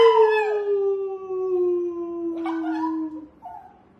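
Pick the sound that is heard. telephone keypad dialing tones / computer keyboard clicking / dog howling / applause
dog howling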